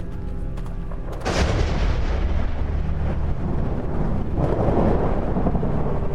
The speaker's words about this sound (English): Thunder and lightning struck just a few yards away.